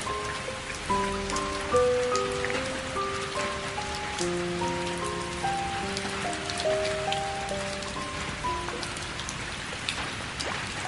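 Steady rain pours down in a continuous hiss, with scattered sharper drops pattering on a surface, while a gentle melodic tune of sustained notes plays softly underneath throughout.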